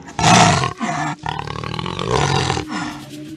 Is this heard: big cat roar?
yes